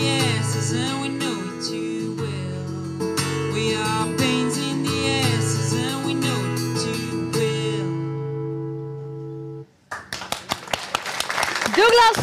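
A sung song with instruments ends, and after a brief pause an audience bursts into applause, loud, steady clapping with a few sharper claps and cheers mixed in.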